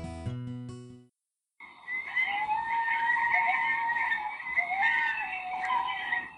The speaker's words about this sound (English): Have you ever heard a coyote sing? Did you know that coyotes are also called North America's song dogs? They communicate through unique howls, yips, and barks.